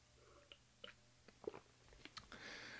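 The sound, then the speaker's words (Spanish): Someone quietly takes a small sip of water: a few small, wet mouth clicks and a soft gulp, followed by a brief breathy exhale, all faint with no talking. “eh, perdón, discúlpenme, denme un segundito, déjenme tomo un traguito de agua.”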